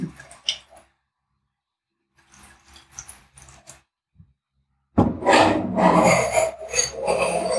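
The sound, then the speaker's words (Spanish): A cork is worked out of a wine bottle with short rasping, creaking rubs, a brief pause, then a louder, sustained scraping grind. No clear pop at the end. “Al revés, si no suena, quizás porque el, corcho, está un poquito mojado o corrido.”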